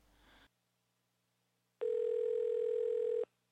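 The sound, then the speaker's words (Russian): A steady telephone dial tone of a call between two friends, one a therapist at a local clinic, hums loudly for about a second and a half, alone after a short burst of noise and a moment of silence, then cuts off abruptly. “Примерно часом ранее того же дня двое друзей, один из которых работает терапевтом местной клиники, созвонились, дабы спланировать совместный просмотр футбольного матча.”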